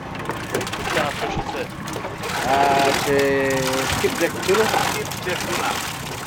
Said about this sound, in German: Wild schlägt der gefangene Thunfisch um sich. Der junge Fisch dient als Lebendköder und wird jetzt an einen Haken gehängt.